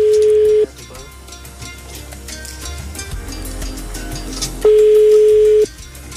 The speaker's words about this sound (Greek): Τίποτα. Έχουμε σήμερα τρία τηλεφωνήματα και κανεί δεν το σηκώνει.